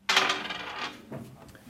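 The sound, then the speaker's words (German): Story dice with symbols, rolled in turn by design students in a storytelling seminar at Hochschule Nürnberg, clatter sharply onto a hard surface, rattling and settling, with a second smaller knock near the end. Fairly loud, with no voices. “Sie würfeln der Reihe nach unterschiedliche Symbole und sollen anhand der Symbole eine Geschichte erfinden.”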